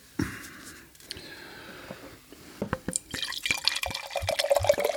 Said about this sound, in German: Man kann so, man kann auch so skrupellos einfach wirklich das Glas vollhauen.